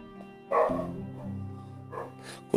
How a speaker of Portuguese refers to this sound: Ah, começou o cachorro.